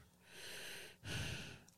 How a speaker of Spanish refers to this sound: deja estar eh, respirando en el micrófono. No deja estar respirando en el, micrófono.